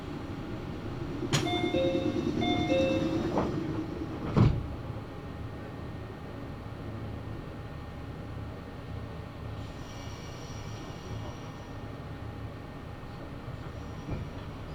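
Inside a Meitetsu (Nagoya Railroad) Mikawa Line (Umi Line) commuter train running from Hekinan to Chiryu, Japan, a short electronic chime sounds and a door shuts with a thud. Then the car's steady rumble carries on as the train runs.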